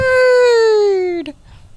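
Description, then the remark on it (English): A person imitates a whale call with one long, loud, drawn-out vocal moan that slides slowly downward in pitch for over a second, then breaks off with a short breathy catch. “Oh, I did talk whale.”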